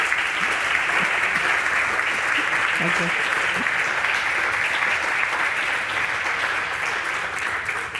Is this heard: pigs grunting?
no